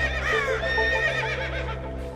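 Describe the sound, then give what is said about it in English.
A white horse covered with ice lets out one long, quavering whinny, loud, its pitch wavering up and down for about two seconds over a steady low background hum. “The horse chased the bird away and rescued me.”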